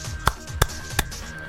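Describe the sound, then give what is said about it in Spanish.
Three sharp hand claps in a short, even burst, roughly a third of a second apart, each crisp and moderately loud over a faint background with no talking. “Ese aplauso que, ese aplauso que duró este ahorita ni siquiera un segundo, lo puedes hacer de hasta qué será?”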